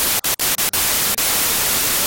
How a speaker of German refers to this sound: Kann doch nicht wahr sein. Also ich höre dich nicht. Ich Hör nur so ein Rauschen.